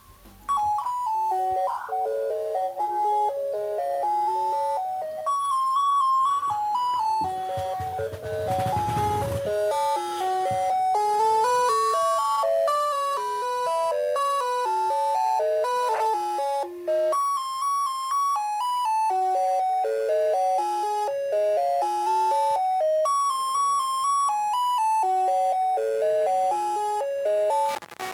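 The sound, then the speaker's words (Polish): Telephone on-hold music, played when the phone's hold button is pressed: a tinny, slightly distorted electronic melody of quick single notes plays continuously and fairly loudly for the whole stretch, with no voices over it. “I teraz posłuchajcie, jak e, telefon działa na przycisku hold.”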